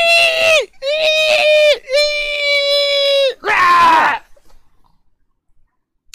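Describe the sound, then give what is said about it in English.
A voice imitates a door screeching as it is opened, a shrill, wailing screech like a wounded animal, four loud, drawn-out cries in quick succession, the last harsher and rougher before it cuts off into quiet. “Uh, so you open the other door, and it starts to screech like a wounded animal.”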